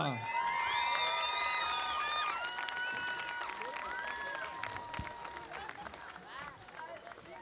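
A crowd claps steadily and loudly, with whistles and whoops rising over the applause before it slowly thins out toward the end.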